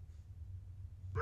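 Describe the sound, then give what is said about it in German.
A low, steady hum fills most of the moment, then a single sharp, fairly loud dog bark bursts in right at the end, a sound effect from the Alexa voice assistant skill "Bello der Hund". “Das weiß ich leider nicht aber Bello der Hund ist aktiviert.”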